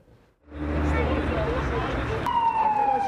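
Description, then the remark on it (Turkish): An ambulance siren rises out of a loud, rumbling traffic wash in Ankara, its steady wailing tone coming in clearly near the end, prominent over the engine noise; the ambulance carries passengers from a plane from Iran suspected of carrying coronavirus. “Şu anda ambulansın içinde o uçaktaki yolcular var.”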